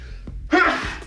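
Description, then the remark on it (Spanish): A single loud sneeze bursts out after a brief quiet intake of breath, a sharp explosive blast that trails off over about half a second. “Salud. Gracias.”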